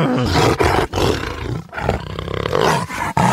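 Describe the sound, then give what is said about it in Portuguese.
A person imitates a real lion's roar, a loud, raspy, growling voice rumbling in several long bursts separated by brief breaths. “Como que o leão faz? Que leão? Você tá falando técnico? Não, leão, leão de verdade.”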